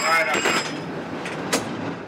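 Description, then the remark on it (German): A San Francisco cable car, worked by a gripman and a brakeman, pulls away with a rumbling, rattling rail noise, a high metallic whine at the start and a sharp clack partway through, while voices murmur underneath. “Beide sorgen dafür, dass die Kabelbahn in der Spur bleibt, um die Kurve kommt, auch auf sehr abschüssigen Straßen anhalten kann und an der Endstation gedreht wird, denn die Wagen haben keinen Rückwärtsgang.”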